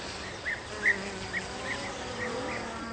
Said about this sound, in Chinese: 那苍蝇当然是一种骚扰，他当然要生气了。